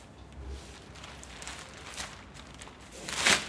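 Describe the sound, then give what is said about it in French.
Wind blows steadily outdoors with a diffuse, rushing noise, a low rumbling gust near the start and a sharper, hissing swell toward the end. No one speaks. “Donc voilà, vous pouvez entendre le bruit du vent.”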